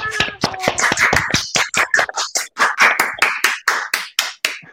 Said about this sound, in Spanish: Y después de ese aplauso tan miserable.